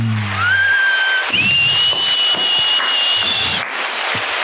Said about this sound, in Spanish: Gracias a todo el público con esas palmas.